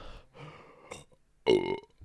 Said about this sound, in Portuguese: perdão. Ah, arrotei tipo 17 vezes.